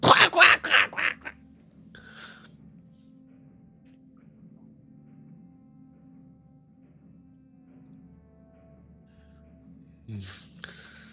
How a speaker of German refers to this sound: Und so ein paar Raben sind so weggeflogen von dem Dach des Turmes.